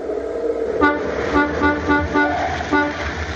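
A car arriving on a street while it is snowing honks its horn in a series of short, uneven bursts over the low rumble of its engine. The honks are fairly loud, with no talking.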